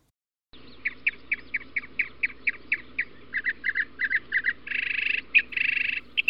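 A bird sings loud, clear repeated notes in a steady rhythm, then breaks into quicker clustered calls and a longer buzzy trill, over a faint low background hum.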